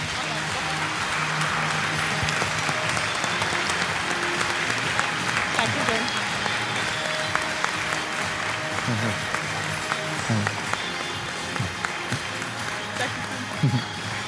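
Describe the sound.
An audience applauds steadily for several seconds, a dense, even wash of clapping with a few voices murmuring underneath and occasional louder claps toward the end.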